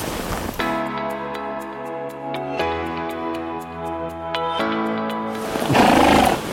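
horse neighing

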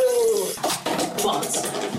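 water running

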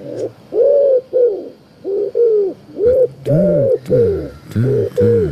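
wood pigeon cooing

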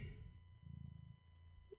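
cat purring near microphone

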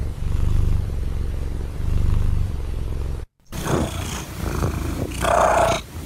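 cat purring

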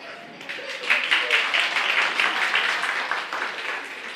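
audience clapping

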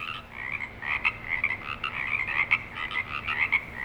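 chorus of frogs croaking

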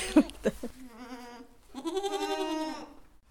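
goats bleating

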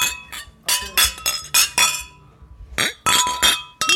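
glasses clinking

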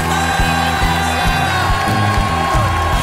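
audience cheering

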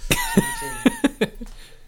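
sneeze

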